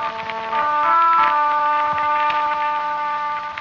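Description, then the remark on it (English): A horn sounds long, steady notes echoing from the mountain pass of Roncesvalles, with no one talking, its sustained tone hanging in the air for several seconds with a slightly echoing quality. “And over the picture, the sound of a horn echoing from the pass of Roncesvalles.”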